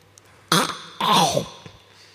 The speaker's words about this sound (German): Ähm, hier wollen Sie einen Sellerie, wollen Sie mal in diesen leckeren Sellerie reinbeißen, oh. dass die Leute am Radio auch hören, wie lecker der ist. Achtung!